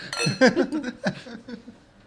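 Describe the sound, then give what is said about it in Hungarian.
Glasses clink together in a toast, a bright ringing chime with a couple of lighter taps after it. Faint murmuring voices and a soft chuckle sit underneath. “Egészségetekre.”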